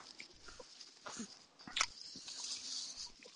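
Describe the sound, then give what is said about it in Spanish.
Someone chews food right up close to the microphone during a recording, making irregular wet clicks and crunchy smacks over a few seconds, with nobody talking. “yo escucho a alguien comer y Tratemos de no comer mientras estamos grabando, por favor.”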